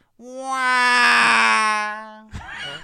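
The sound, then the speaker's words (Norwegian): A man imitates the engine of the two-stroke moped he rides, with one long, loud, buzzy drone held at a steady pitch for about two seconds, followed by a brief rough sputter. “Og lyden han lager, er jo det samme som en, en uh, Som kjøretøyet han kjører, er.”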